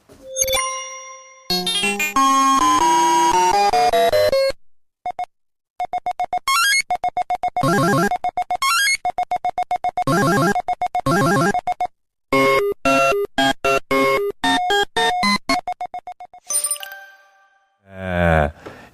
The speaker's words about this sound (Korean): 야, 자 여러분 한때 문방구 앞에서 게임 좀 하신 분들 이 효과음 기억하십니까? 에, 예, 그때를 한번 떠올리면서 여러분 다시 손목 한번 돌려보시면서 네 들어보시죠.